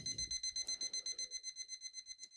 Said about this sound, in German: Der Wecker geht aus und du siehst ich dreh mich auf.